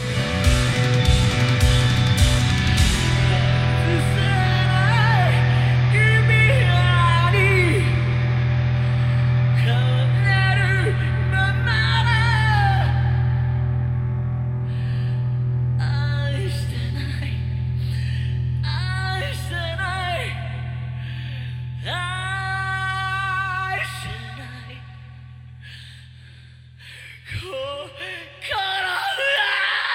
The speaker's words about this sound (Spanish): Y es un final también muy emocionante con … como gritando al final